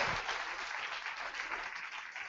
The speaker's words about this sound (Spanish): Denle un aplauso al Señor si usted desea. Alabado sea Él.